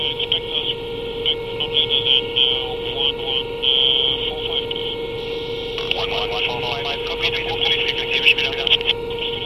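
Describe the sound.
A Navy Lynx Mk.88A shipboard helicopter in flight, heard as a steady engine drone with a constant tonal hum and a wash of rotor noise, with faint muffled voices over a radio partway through.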